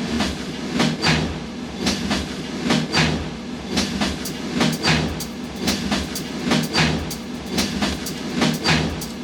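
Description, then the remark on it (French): Rhythmic train noise in a music piece composed from recorded train sounds: a steady rumble with repeated clickety-clack bursts of wheels on rail joints, fairly loud, looping in an even, almost musical pulse with no voices. “Ça c'est un morceau qu'il a composé à partir de bruits de train.”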